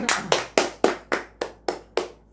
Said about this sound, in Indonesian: Tepuk tangan nih? tepuk tangan aplaus, aplaus, aplaus.